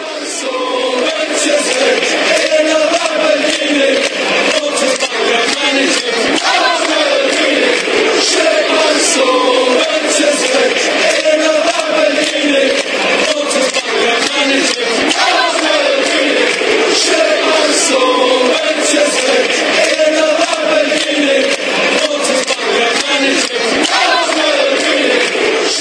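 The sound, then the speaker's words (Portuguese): A large crowd of Manchester City football fans sings a club chant about Manuel Pellegrini in unison, a loud, dense wall of voices holding a steady melody throughout with no pauses. “Vamos ouvir Manuel Pellegrini na canção da torcida do Manchester City.”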